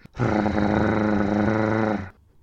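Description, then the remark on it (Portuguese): A voice imitates an aggressive dog's growl: one loud, rough snarl held steadily for about two seconds, then cut off, with no talking around it. “Da mesma maneira que nós falamos com os nossos cães, eles também comunicam connosco e até eles têm as suas próprias expressões, tipo aquele rosnar agressivo.”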